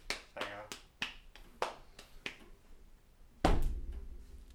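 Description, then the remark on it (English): A string of quick, sharp clicks and taps, then one loud, heavy thump with a lingering low rumble, a person imitating the noises of leaving and shutting a door, fairly loud with no talking. “Realistic door noises.”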